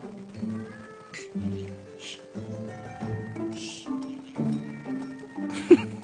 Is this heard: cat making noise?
yes